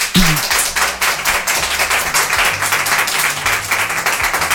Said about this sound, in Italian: E invece il tuo rapporto con Giancarlo, e io scusate, un applauso a Giancarlo.